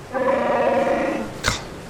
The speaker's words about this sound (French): Ah, Il y a un de tes, porcs là qui vient troubler mon repos mérité.